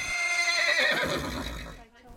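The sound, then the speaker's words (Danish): A horse in a stable lets out one long whinny, its quavering cry sliding downward for nearly two seconds before trailing off into quiet. “jeg synes, at når man er sammen med dyr, der står og tykker og spiser, og man står og striler dem, og der er rigtig dejlig ro her, øhm, det, giver, det giver mig fred.”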